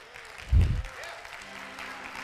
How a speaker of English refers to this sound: No more golf claps.